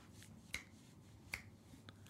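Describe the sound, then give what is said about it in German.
Four crisp finger snaps ring out alone over a quiet background, evenly spaced at first and then the last two coming quicker, each a sharp bright click. “Schnippen hat eine Obergrenze. Schnippen hat ein Limit.”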